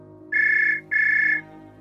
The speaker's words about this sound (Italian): Sto per informarlo che la sua impressione è con ogni probabilità esatta quando il suo cellulare squilla.